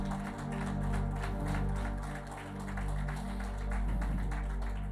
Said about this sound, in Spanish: Hádele un aplauso al Señor si lo cree.